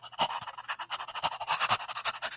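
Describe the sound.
A voice imitates rapid, erratic panting, a quick string of breathy huffs and gasps at uneven intervals, fairly loud, with no words spoken.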